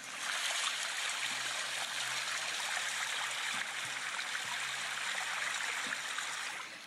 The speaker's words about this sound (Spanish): Todos sabemos cómo va cayendo el agua de las cascadas, ¿no? Se escucha algo así.